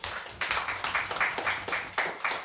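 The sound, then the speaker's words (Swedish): An audience applauds veteran Swedish politicians Lars Leijonborg (Folkpartiet) and Olof Johansson (Centerpartiet) at a politicians' table, the clapping steady and fairly rhythmic, with bright, sharp bursts pulsing roughly twice a second and no voices over it. “Kan de få en liten applåd?”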